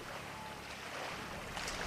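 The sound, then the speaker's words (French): A boat moves across open sea at the tip of Finistère, France, with steady wind and water rushing against the hull in a continuous, fairly loud wash. No one speaks. “On est en 2050 sur ce bateau ici euh, au même endroit à la pointe du Finistère.”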